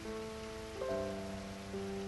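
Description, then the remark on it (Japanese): Steady rain falls with a constant, even hiss that fills the whole clip, while a faint sustained hum of tones runs underneath; no voices are heard. “前へ前へと進んだねえ雨宿りしないと大きな声を出したけれど行軍は続く”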